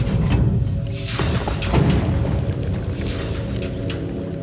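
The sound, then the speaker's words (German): A locked heavy door at the end of a stairway leading down into stone is forcefully pushed open with a loud, booming thud amid a dense, rumbling low background, followed by a few sharp cracks and faint dripping of water from above in an echoing space. “Am Ende der Treppe stand sie vor einer verschlossenen Tür, die sie mit einem kräftigen Rums aufstieß.”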